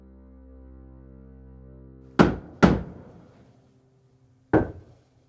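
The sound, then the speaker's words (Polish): Three solid knocks on a wooden door, two in quick succession and then a third after a pause, loud against a faint low hum. “Zobaczcie, to tutaj puka do tych drzwi.”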